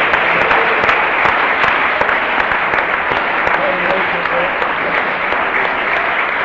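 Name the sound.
audience clapping hands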